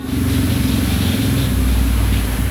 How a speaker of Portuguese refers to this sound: Moto. Moto.